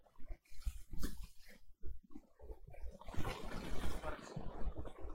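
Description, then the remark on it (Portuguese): Slurping as someone sips coffee from a cup: a few short, wet sucking sounds followed by a longer, louder noisy slurp, with no talking. “Deixa eu só dar uma beijada aqui no café.”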